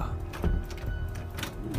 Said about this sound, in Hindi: फिर से उसे वो आवाज आई आवाज सुनकर ऐसा लग रहा था जैसे कोई कुछ खटखटा रहा हो